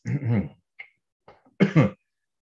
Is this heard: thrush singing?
no